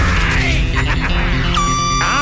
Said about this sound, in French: Maintenant, voici mon alarme.